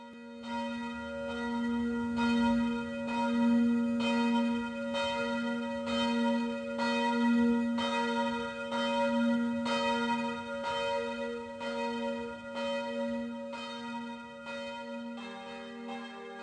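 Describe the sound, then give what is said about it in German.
A church bell rings steadily with a repeated, even stroke, its rich overtones sustaining and overlapping for about sixteen seconds, with no voices. “Äh, wir läuten das heutige Thema ein.”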